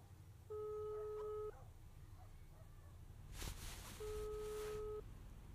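A phone line rings through a handset, two steady one-second tones separated by a pause, with a brief burst of rustling noise in between, over a low background hum.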